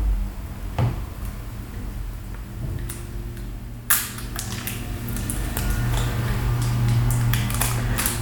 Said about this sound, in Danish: Og jeg skal lige have pakket det sidste plastik af strømkablet.